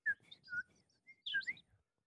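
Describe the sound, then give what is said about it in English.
Someone whistles a quick series of high, chirpy, bird-like notes in two short bursts, breathy, imitating a whistling scrotum, with a brief pause between them and no talking. “was left with a whistling scrotum”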